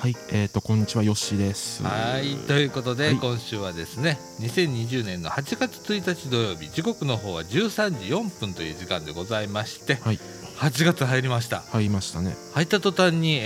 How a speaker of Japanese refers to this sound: 先週あたりからあの放送内でも、あのセミの鳴き声がずっとじーっと入っている状態だと思いますけれども